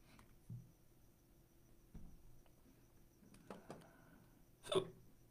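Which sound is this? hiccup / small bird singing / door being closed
hiccup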